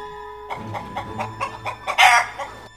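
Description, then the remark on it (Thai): A rooster gives a string of short, clucking calls that build to a louder, brighter crow near the end, heard alone with no talking. “พระราชาพยายามจะคัดค้านแต่ก็มีเสียงแต่เอกอีเอกเอกออกมาจากปากพระองค์เพียงเท่านั้น”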